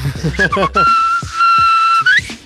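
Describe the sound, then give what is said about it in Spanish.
A short burst of voice gives way to a loud whistle, reminiscent of a knife sharpener's call, that holds one steady high note for over a second, then slides upward at the end. “Ese silbido mágico, es ¿eh? como, como si fuera el tapicero, ¿no? el, o el afilador.”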